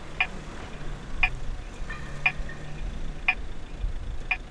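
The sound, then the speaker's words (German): A pedestrian crossing signal ticks steadily, five sharp clicks about one second apart, over a low rumble of street traffic in the background. “Normalerweise bei größeren äh, Kreuzungen tickt das Ding schneller, wenn, wenn die Ampel für dich grün ist und tickt es langsamer, wenn die Ampel für dich rot ist.”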